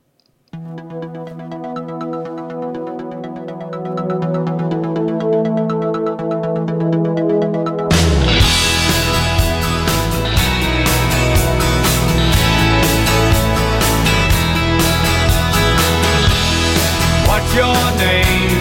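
A pop rock song opens with sustained, bright keyboard tones for several seconds, then a full band crashes in with driving drums and dense guitars, loud and close.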